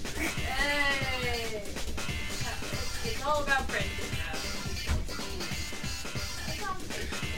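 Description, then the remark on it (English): Several people bleat like sheep, producing wavering, quavering 'baa' sounds in a few overlapping bursts, fairly loud, over a busy background of voices. “Apparently, we sheep now.”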